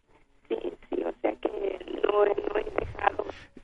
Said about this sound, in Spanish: Sofi, le estamos perdiendo la comunicación, no sé si, tenga teléfono inalámbrico o celular